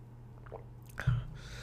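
Someone takes a quick sip of water: a soft wet slurp, then a brief swallow and faint mouth noise, with no talking.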